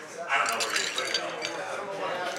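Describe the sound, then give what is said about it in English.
Ice and water are poured into a beer glass, ice clinking and rattling against the glass while liquid pours steadily, a busy jumble of bright chinks and splashing over about two seconds. “Your ice is so watery, and you're uh, pouring the water and uh, the ice into why you, beer.”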